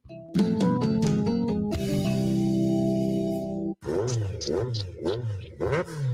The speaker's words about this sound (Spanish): ¡Fua! ¿Cómo suena esa moto?